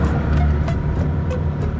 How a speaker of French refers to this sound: On avance dans tout sur la lagune, là, dans cette pirogue où il y a ce petit moteur.